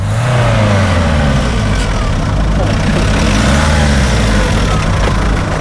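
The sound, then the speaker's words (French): A car engine runs loudly and steadily, its low rumble rising and falling as it revs a couple of times throughout. “Oh yes Mais t'arrêtes pas le moteur T'arrêtes pas, hein, arrête pas”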